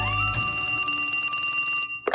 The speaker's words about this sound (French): Belson est chez lui lorsque son téléphone sonne.